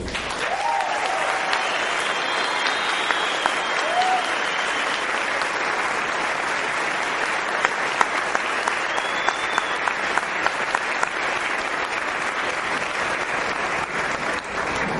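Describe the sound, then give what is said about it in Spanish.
Sustained applause from a large audience, dense and steady for about fifteen seconds, with a few faint cheers rising above the clapping, given to affirm they will attend a convention. “Para mí ha sido un placer inmenso y yo lo único que te pido es que tú con un fuerte aplauso me digas que vas a estar en esa convención.”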